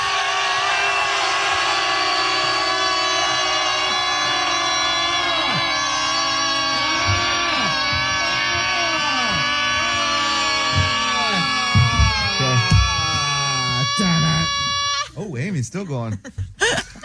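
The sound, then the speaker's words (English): A room full of people scream together after a count of three, one long sustained shout, many voices layered and wavering for about fifteen seconds before breaking off into laughter and scattered chatter. “You hear people in the room just screaming.”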